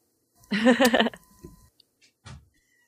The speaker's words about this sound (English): Sorry, I'm choking on some water there.